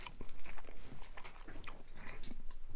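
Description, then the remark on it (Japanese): Wet, crunchy chewing of a first mouthful of chicken curry, curry roux and rice, with repeated soft smacking and crackling bites in an irregular rhythm, fairly quiet and with no talking. “はい。いただき、一口いただきます。”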